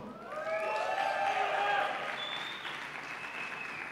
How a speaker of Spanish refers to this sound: aplaudieron más